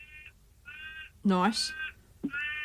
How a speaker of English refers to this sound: So well, it's I hear a crow in the background. Nice work, little. Sorry, I'll, cl- I'll close my window. No, no, it's, it's oh, totally fine. Like it. It's, you know, part of the atmosphere you get with football.